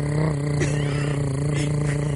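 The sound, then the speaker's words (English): A voice imitates a running generator with a steady, droning hum that holds one pitch for about two seconds, loud, with a slight rattling buzz and no words. “Your generator sound effect was, was pretty pretty good though.”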